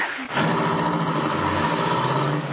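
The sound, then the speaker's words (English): A car engine catches after a brief pause and roars up to a loud, steady revving drone, sustained as the car pulls away fast out of a garage at about 60. “We get into this car, drive out of the garage like 60 and get past those two killers.”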